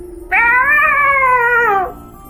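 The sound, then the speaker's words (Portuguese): A person's voice imitates a cat with one long, drawn-out meow, loud, holding steady for over a second before trailing off. “Vou fazer uma taumaturgia e vou fingir que foi um gato.”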